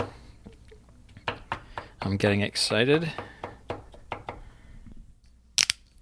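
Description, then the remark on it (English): Garlic being crushed and sliced with a knife into a small pile: a steady series of sharp chopping taps on a board, briefly joined by a person speaking partway through. “All right, so the garlic is being crushed slash sliced.”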